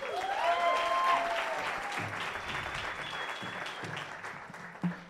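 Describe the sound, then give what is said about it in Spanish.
An audience applauds steadily for about five seconds to welcome Sofía Niño de Rivera for an interview, a dense wash of clapping with a few whistles and cheers rising over it at the start, easing slightly toward the end. “Entonces, denle un aplauso a Sofía Niño de Rivera.”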